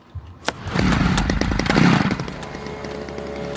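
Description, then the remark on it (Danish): A pest-control fogging machine's small engine, spraying disinfectant in a scene from the film Parasite, starts with a sharp burst, then runs loud and raspy with a buzzing drone for a couple of seconds before easing off and fading. “뭐야, 소독해? 창문 닫아.”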